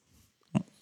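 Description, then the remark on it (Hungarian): A dog gives one short, sharp snort, a quick nasal burst that stands out from the quiet snuffling and breathing around it. “Ronda ez a kutya, mi a neve?”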